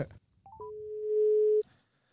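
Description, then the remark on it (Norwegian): A few quick rising beeps lead into a single steady telephone ringing tone on an outgoing call, holding for about a second, clear and fairly loud over faint background noise, with no voices. “Hei, ja, vi ringer fra Tempopodden.”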